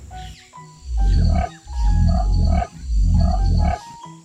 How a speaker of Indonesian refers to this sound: Sekarang aku tahu. Ini adalah burung kasuari gelambir ganda.